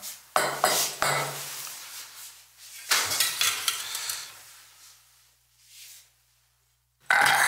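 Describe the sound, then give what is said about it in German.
A hot pan clunks down on a wooden cutting board while a meal is being plated, followed by clattering kitchen sounds and scraping, then a short quiet pause before another clatter at the end. “Immer wichtig, heiße Pfannen aufs Schneidebrett stellen.”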